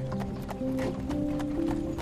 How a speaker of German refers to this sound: Du sitzt warm und gemütlich in der Pferdekutsche und genießt die wunderschöne, friedliche Winteratmosphäre.